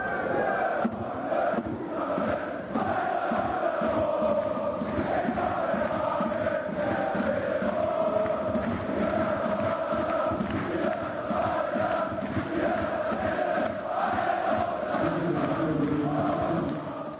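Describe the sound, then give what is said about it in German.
Thousands of Hannover 96 fans, who follow their team to away matches, sing the Europapokallied together: a loud, steady, tuneful roar of many voices with rhythmic accents, continuing without a break. “Wenn Hannover 96 auswärts spielt, dann begleiten tausende Fans ihre Mannschaft. Und ein Song ist immer mit dabei.”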